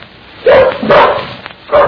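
A dog barks three times in quick, uneven succession, loud, each bark sharp and throaty with brief pauses between them and no talking.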